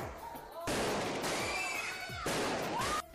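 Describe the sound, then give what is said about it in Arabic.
Loud bursts of firecrackers and fireworks rockets go off in a dense crackling barrage during Eid celebrations in Egypt, heard from a balcony, with whistling rockets rising through it and repeated low thumps underneath. “تعالي بصي معايا كده من البلكونه شايفين الاطفال مبسوطين ازاي بلبس العيد وفرحانين بيه وماسكين البالونات وماسكين عيديتهم في ايديهم وسامعين صوت البومب كده والصواريخ”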